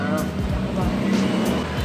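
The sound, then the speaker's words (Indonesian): Motorcycle traffic rumbles past outdoors, engines droning loud with rising and falling pitch as several bikes pass in quick succession, a continuous street roar throughout. “Ini disclaimer dulu ya, soalnya kita recordnya lagi di luar nih. Lagi di luar, jadi mungkin ada suara-suara klakson-klakson motor.”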